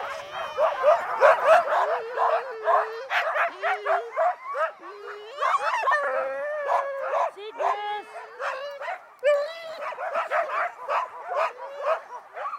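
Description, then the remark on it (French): A pack of sled dogs being harnessed barks and yips excitedly and continuously, with high whimpers and howl-like cries mixed in, while people talk over the din. “Parce que lui, dès que ses chiens sont prêts, il faut qu'il parte.”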